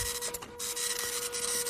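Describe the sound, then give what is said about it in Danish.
A 3D printer runs with a steady mechanical whine and a constant tone, its motors whirring and rasping in short uneven pulses. No one speaks. “Jamen, øh, vi skal snakke 3D-printer.”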